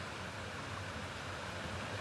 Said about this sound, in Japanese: この川の音もまあまあ大きいでうちの山にある川っていうのはそんなに大きな川じゃないんですけれどもこの川の流れの音っていうのは非常に大きいで